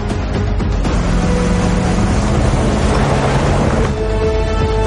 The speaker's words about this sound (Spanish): El convoy irrumpe en el rancho.